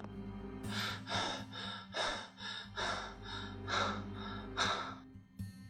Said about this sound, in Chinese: 在保安诧异的目光下，李振一路飞奔，一直跑到自家门口，他才敢弯腰喘息了一会儿。